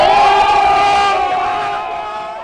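A crowd applauds and cheers loudly, voices rising in a sustained roar that gradually fades over a couple of seconds.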